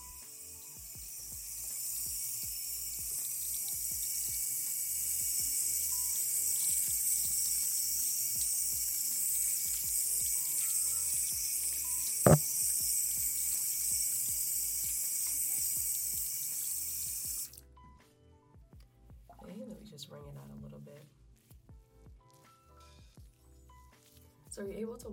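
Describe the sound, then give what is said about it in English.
A tap runs steadily with a bright, rushing hiss for about seventeen seconds as someone wets their Sisterlocks hair to wash it, then shuts off abruptly, leaving quiet handling sounds and a brief voice near the end. “So typically I start by washing my hair by wetting it”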